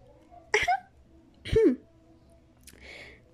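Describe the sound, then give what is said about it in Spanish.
A voice performs Professor Umbridge's prim, affected little cough, two short voiced throat-clearing 'hem' bursts a second apart, then a softer breathy sound, fairly quiet with no other speech. “La profesora Umbridge utilizó la misma tosecilla ridícula con que había interrumpido a Dumbledore la primera noche del curso.”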